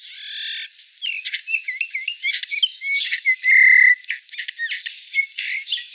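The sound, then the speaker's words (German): Eurasian bullfinch song: a quiet, varied run of soft creaky warbles, squeaky notes and short whistles, with one steady held tone in the middle, all high-pitched and continuous for several seconds. “Wir hören uns aber nochmal an, wie der Gesang des Gimpels ist.”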